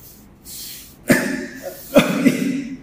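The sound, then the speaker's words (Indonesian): A person coughs twice, with the two harsh bursts about a second apart and a brief raspy tail after each. “Bentar, batuk.”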